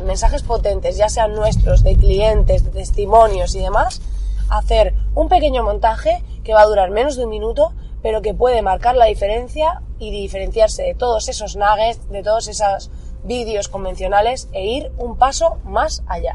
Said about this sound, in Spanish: Perdona por el ruido y demás, porque ya sabes que esto de en el coche conduciendo y demás es complicado que no haya ruido